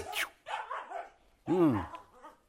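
animal, dog barking

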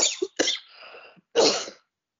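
human body sound, coughing

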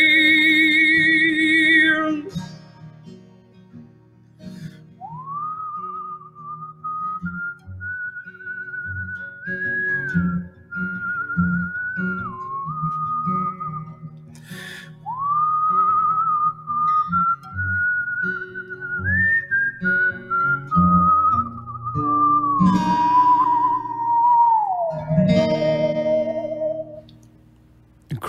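human body sound, person whistling a tune

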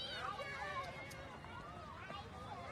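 crowd, children playing

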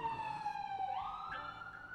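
vehicle, ambulance siren

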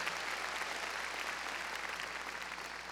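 crowd, audience clapping loudly

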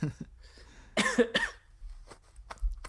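human body sound, man coughing

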